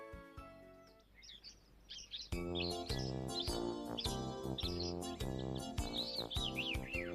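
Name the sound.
nightingale singing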